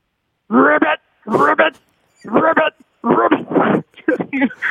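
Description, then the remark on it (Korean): A man's voice imitates the call of a female frog in breeding season: five loud, raspy, croaking bursts in an uneven rhythm, with short silences between them. “예, 산란기 개구리 소리 한번 먼저 들어봅니다.”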